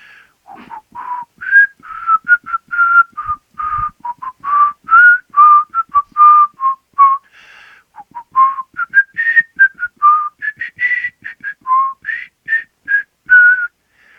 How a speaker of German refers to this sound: Also mir, mir fallen Melodien ein, die man nutzen kann. Ne, zum Beispiel, ich muss jetzt pfeifen. Ich hoffe, das übersteuert nicht total.